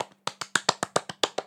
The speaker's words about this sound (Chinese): 花式掌声！